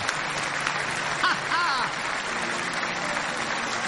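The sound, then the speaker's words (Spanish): Sustained audience applause, a dense steady wash of clapping throughout, with some brief raised voices and whoops rising over it partway through. “Ese aplauso tiene que ser más grande.”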